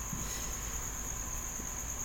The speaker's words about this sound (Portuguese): Se você estiver ouvindo o grilo de fundo, é o charme.